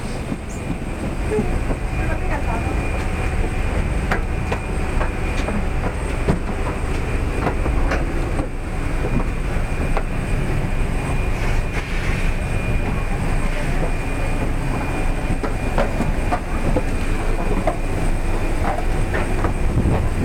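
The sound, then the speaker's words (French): An airplane rumbles on the tarmac before takeoff for Warsaw, a loud, steady engine drone with a thin high whine running through it and faint voices murmuring underneath. “Après quelques péripéties, nous voici sur le tarmac et sur la passerelle d'embarquement, direction l'avion, où d'ici quelques instants, une fois installés, nous allons tranquillement décoller vers Varsovie.”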